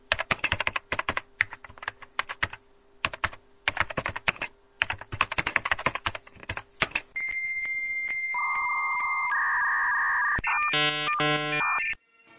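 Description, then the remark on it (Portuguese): Rapid, uneven keyboard clacking as someone types out a web address for about seven seconds, followed by steady high electronic tones and a burst of warbling beeps. No one speaks. “Cara, eu sempre digitei o treco inteiro do do, caminho deles?”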